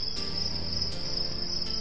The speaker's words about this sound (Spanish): El indio José bajó del tabanco, encendió la linterna y se puso a buscar el grillo para aplastarlo.